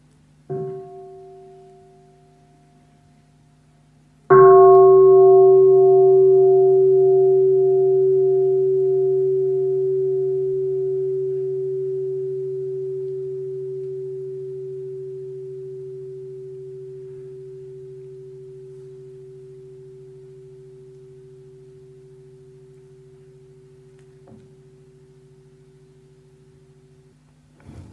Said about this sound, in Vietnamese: thính cho một tiếng chuông